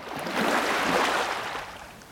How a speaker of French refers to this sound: aujourd'hui, on va écouter le son des vagues. La vague n'est pas tant un déplacement d'eau qu'un transfert d'énergie.